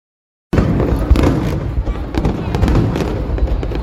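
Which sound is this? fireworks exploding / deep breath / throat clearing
fireworks exploding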